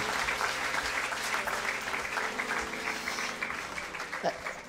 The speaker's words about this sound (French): qu'on peut les applaudir fort, fort, fort, fort et le bénir.